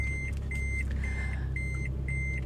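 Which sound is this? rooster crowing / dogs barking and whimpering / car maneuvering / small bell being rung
car maneuvering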